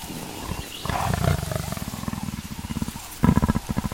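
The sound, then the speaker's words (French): A cheetah growls low in the African savanna in the morning, a steady run of rough rumbling pulses that swell louder near the end, with no voices present. “Un chat en pleine savane hmm, Non, ça ressemble plutôt à un grognement. Ah mais oui, c'est le guépard.”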